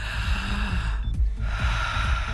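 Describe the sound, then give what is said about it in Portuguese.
A forceful breath drawn in with effort, a strong airy rush with a rough, snort-like edge, followed by a softer, effortless release of air like a sigh, with no talking; a relaxation breathing technique being demonstrated. “o esforço puxando o ar e a saída você deixa o ar sem esforço, Como né?”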